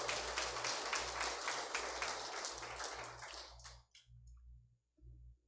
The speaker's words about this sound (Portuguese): E dê uma salva de palmas para o Senhor.